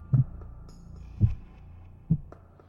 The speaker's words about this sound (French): Je presse euh, mon oreille sur la poitrine de l'homme. Est-ce que je perçois quelque chose Quant à toi, euh, Lima, tu as, tu as ta tête pressée contre sa poitrine et tu entends un faible battement qui ralentit et finalement s'arrête.